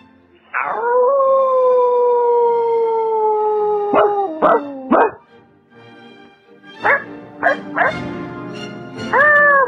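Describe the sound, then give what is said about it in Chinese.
A human voice imitates a wolf howl: one long, steady, tonal howl that slides in at the start, then a few short yelping cries, and a final rising howl. No words are spoken. “最后还有嗯，我的远亲，当然就是狼。”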